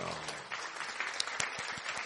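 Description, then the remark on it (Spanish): A burst of applause from a small group, dense irregular clapping with a few sharper, louder claps standing out, sustained steadily for about two seconds with faint voices mixed in. “Esto se merece un, aplauso. Un aplauso.”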